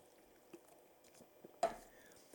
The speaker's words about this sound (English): This is worth another sip of the hot water here.